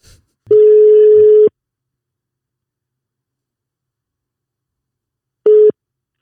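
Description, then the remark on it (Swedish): A telephone ringback tone: one steady, fairly loud electronic beep about a second long, a few seconds of silence, then the tone starts again and cuts off. No one speaks. “Mm, vi ringer.”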